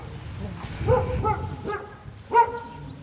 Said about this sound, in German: Haben wohl auch einen Hund. Einen. Klein und laut.